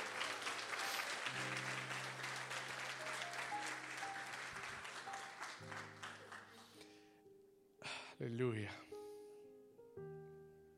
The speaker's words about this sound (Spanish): Vamos a darle ese aplauso fuerte al Señor si tú lo anhelas hoy.